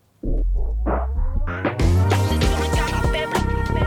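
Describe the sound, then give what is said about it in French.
A short hip-hop intro jingle for the rap chronicle of the show Canapé bleu: a few rising synth stabs build up over a deep bass pulse, then burst into a full, loud beat with layered instruments and steady drums. “Rien que le jingle, l'ambiance et tout, là, ça me donne envie de, faire un petit freestyle.”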